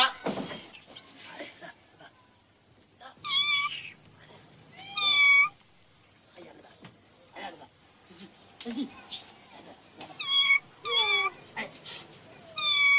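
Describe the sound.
A particularly reluctant cat meows repeatedly during a film shoot, loud, with drawn-out, harmonic yowls coming in bursts every second or two, interspersed with scuffling and handling noises; people speak briefly between the cries.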